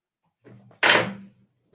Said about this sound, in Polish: O, meble padają tam. No ja ciebie nie słyszę. Jakiś remont się odbywa.